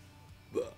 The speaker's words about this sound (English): Oh, that was a burp. I'm sorry.